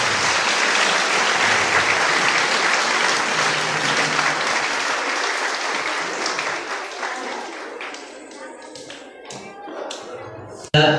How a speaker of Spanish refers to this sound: Un fuerte aplauso para el Consejo de Padres, por favor.